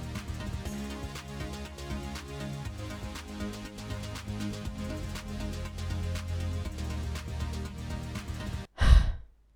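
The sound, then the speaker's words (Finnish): A stretch of busy background music cuts off, then a single loud, heavy breath is blown into a microphone held in front of the speaker's face, like a deep sigh, right at the end. “Ja tuntuu, että mä hengitän kauhean raskaasti.”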